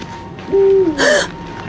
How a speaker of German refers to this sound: Was war das? Ein Käuzchen. Oder eine Eule. Was weiß ich, du Angsthase.